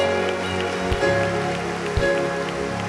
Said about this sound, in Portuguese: Vamos dar um lindo aplauso.